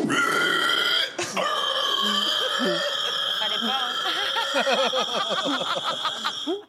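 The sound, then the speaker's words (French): A man, a pig-squeal calling champion, imitates a pig's squeal loudly, holding a long, shrill, strained cry that breaks into choppy, grunting squeals before stopping abruptly. “Oui, c'est le champion du cri de cochon”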